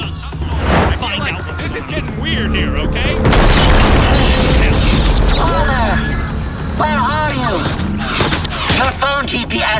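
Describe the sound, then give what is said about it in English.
A robot smashes through a wall with a sudden, heavy booming crash, followed by seconds of rumbling, clattering debris. Excited voices can be heard before and after the impact. “A robot just crashed through our wall?”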